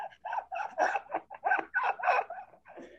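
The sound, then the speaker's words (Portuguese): A dog makes playful, chattering vocal noises, a quick uneven string of short yips and huffs, fairly loud, with no one talking. “ah, cachorro tá rindo?”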